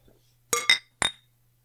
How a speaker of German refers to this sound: Da hat der noch ein Dritter angestoßen. Ich habe zweimal. Front- und Backschlag.